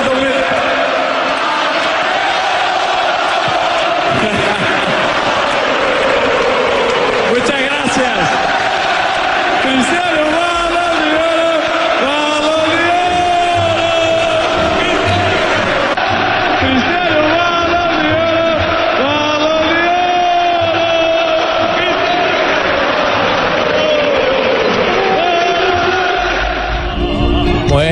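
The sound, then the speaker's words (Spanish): A huge crowd at the Santiago Bernabéu stadium roars and chants in unison as Cristiano Ronaldo comes out onto the stage, loud and sustained for the whole stretch, with rising and falling waves of massed voices and cheering. “Escuchemos lo, lo, que se vivió en el Santiago Bernabéu cuando Cristiano Ronaldo salió a tarima.”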